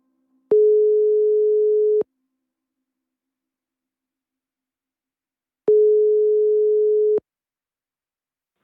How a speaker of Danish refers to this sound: Så nu ringer vi ham op, og det bliver det sidste opkald til ham i den her omgang.